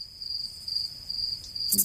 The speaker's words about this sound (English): I, I should have put like crickets right there in that section when I edited it. Like it got dead silent.